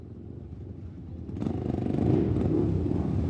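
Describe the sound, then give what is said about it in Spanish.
A motorcycle engine rumbles low and steady, then revs up and grows louder and rougher partway through, holding a strong throaty roar to the end. No voices. “se mueve en moto.”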